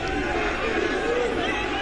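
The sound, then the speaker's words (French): A dense crowd roars with booing and jeering, a steady loud wall of many overlapping voices that holds without pause for a couple of seconds, as the German general Von Scholtitz, having surrendered, is led to the police prefecture in Paris. “Il est immédiatement conduit à la préfecture de police, sous les huées de la foule.”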